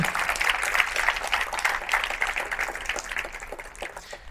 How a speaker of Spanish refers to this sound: Pueden darle un fuerte aplauso al Señor que nos da su palabra, que es fiel.